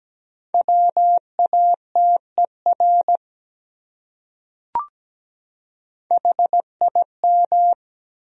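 A steady mid-pitched tone keys out Morse code at 17 words per minute in crisp dots and dashes, two short common English words separated by a pause and a soft click, with no voices.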